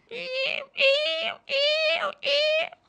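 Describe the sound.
A voice imitates a seagull with four loud, drawn-out wailing cries in steady succession, each lasting about half a second with short pauses between them.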